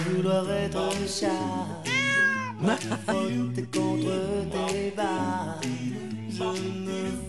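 Cats meow repeatedly in drawn-out, wavering cries that rise and fall in pitch, loud, layered over a steady musical backing with a low bass line throughout.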